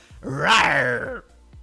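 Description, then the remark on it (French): A person imitates the roar of the MGM logo lion with one loud, throaty growl that swells and holds for about a second before breaking off, followed by a brief quiet. “Oui, alors, bon, je fais mal ben, le lion, mais.”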